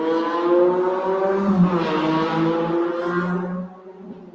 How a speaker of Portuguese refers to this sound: Olha a moto.